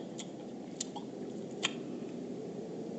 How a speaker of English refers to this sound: Can't you chew a little quieter? I'm trying to figure out how big this compartment is. I can't think with all this goddamn noise you are making.